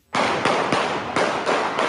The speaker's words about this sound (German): Auf einmal fallen Schüsse. Dieses Handyvideo zeigt den Moment, in dem alles begann. Kurz vor 18 Uhr schießt ein Mann an einem Schnellrestaurant im Münchner Norden um sich, steuert direkt danach ein beliebtes Einkaufszentrum an.